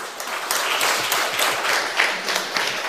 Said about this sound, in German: Applaus